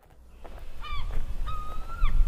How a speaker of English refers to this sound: The sound made me look up. The gulls were approaching.